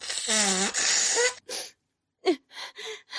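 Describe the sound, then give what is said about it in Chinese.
A long, loud honking nose-blow into a handkerchief by Mother Pig in a Monkey Detective story, with a wavering pitch, followed by a short snuffle, a brief pause, then three quick, breathy sniffs and blows. “猪妈妈掏出一张手帕，使劲的擤了擤鼻涕，对猴子警长说：”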